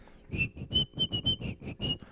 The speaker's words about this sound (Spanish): No sé silbar, eh. Ya nos dimos cuenta. Tampoco yo, pero ya no importa, ese programa no, es de silbidos.